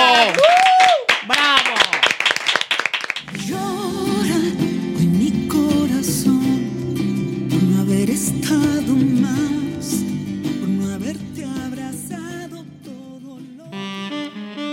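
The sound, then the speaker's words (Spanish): A short burst of audience applause on a Spanish-language show, quick dense clapping for about three seconds, then it fades as voices and a steady tonal background take over. “Un aplauso, continuamos.”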